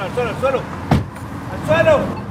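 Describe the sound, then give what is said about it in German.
A border police SUV rumbles to a stop and a car door opens with a single sharp thud as the officers jump out, while raised voices call out in Spanish before and after. “bremst den Geländewagen ab, springt mit zwei Kollegen aus dem Auto und ruft auf Spanisch: Auf den Boden, auf den Boden!”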